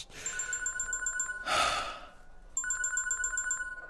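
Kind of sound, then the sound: signal or alarm, telephone ringing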